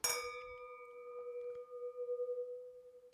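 IKEA wine glasses touch in a single bright clink during a toast, then a clear, pure ringing tone lingers with a gentle wavering shimmer for several seconds. Fairly quiet, with no voices.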